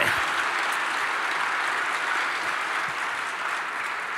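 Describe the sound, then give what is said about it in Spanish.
An audience at a church service applauds the Lord loudly and steadily, a dense wash of clapping lasting several seconds without letting up. “Dáselo fuerte al Señor. Dáselo muy fuerte.”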